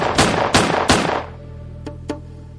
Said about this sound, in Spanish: Cuando llegó a la mitad del tejado, los disparos que estábamos haciendo le dieron.